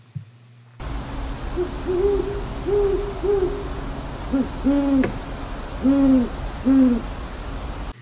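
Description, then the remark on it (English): A pair of owls hoot back and forth in a series of low, rhythmic calls over steady background hiss. The female starts the calling with a slightly higher, quicker voice, and the male responds with a slower, deeper one. No talking. “Yeah, or if mom's on the nest, she'll start the calling to say, I'm hungry, go get food. And he'll respond.”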